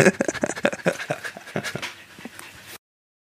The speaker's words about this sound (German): Hast du die ganze Zeit den Hund hecheln? Ja, man hört den Hund hecheln.